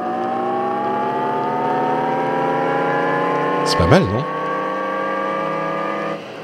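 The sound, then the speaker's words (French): The synthetic driving sound Jaguar revealed for its electric cars: a steady, layered electronic hum whose pitch climbs slowly, like a futuristic engine accelerating, lasting several seconds, with a brief spoken remark partway through. “Donc, euh, euh, les voitures Jaguar, ils ont révélé le bruit qu'ils allaient, euh, qu'ils allaient faire.”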